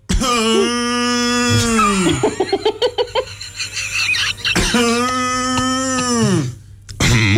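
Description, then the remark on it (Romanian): A person imitates a cow coughing: a long, loud, droning moo, then a rapid series of short raspy cough-like bursts, followed by another drawn-out moo that trails off. “eu cum tușește vaca?”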